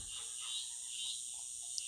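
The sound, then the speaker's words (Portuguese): A dense, continuous chorus of night insects and frogs from a forest fills the air with a steady high-pitched buzzing and trilling, unbroken and without any voices. “Olha o barulho que os bichos da floresta estão fazendo”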